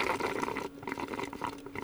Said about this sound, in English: No one wants to hear you slurping on your drink over there.